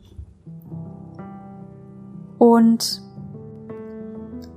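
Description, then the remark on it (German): A soft, slow melody of long sustained notes plays quietly in the background, shifting pitch every second or so, with a brief brighter, louder accent midway and a voice speaking briefly. “Du hörst jetzt schon langsam die Melodie im Hintergrund.”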